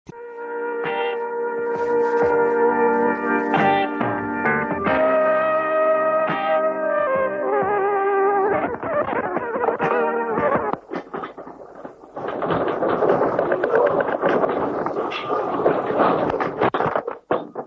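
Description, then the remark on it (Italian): Light music plays on an old recording, made at 9 pm on 6 May 1976 by a 19-year-old taping a light music programme, then falters and gives way to a loud, chaotic rumbling roar with crackling noise as the magnitude 6.3 earthquake in Friuli shakes the room, lasting several seconds to the end. “Avete appena ascoltato infatti la registrazione del terremoto che la sera del 6 maggio 1976 devastò tutto il Friuli centrale.”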